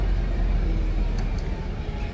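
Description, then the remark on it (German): Low, steady engine rumble of a small city bus on a sunny Sunday, with two brief high ticks partway through as it pulls up at the Bleicheli stop; no one speaks. “Darum ist es auch ein kleiner Bus, weil mit einem kleinen Bus lässt sich es wahrscheinlich, wahrscheinlich einfacher rum, rumgurken.”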